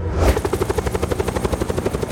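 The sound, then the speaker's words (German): A helicopter's rotor thumps in a fast, steady, loud chop, with a broad whooshing roar underneath and no voices. “Besorgen Sie mir das größte Megafon des Planeten und ihren besten Helikopterpiloten.”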